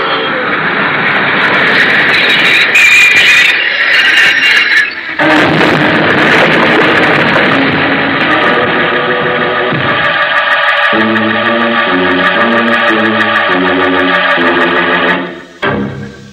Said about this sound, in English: See? The train's coming.